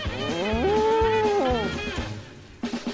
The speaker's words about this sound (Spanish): Estuve con la vaca María. ¿No la ves?